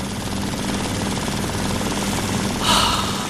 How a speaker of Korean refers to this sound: 은행의 지폐 세는 기계 그 작동음